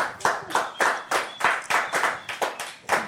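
Clapping as applause for a work team, in a quick, fairly steady rhythm, about three sharp claps per second for a few seconds, with no voices over it.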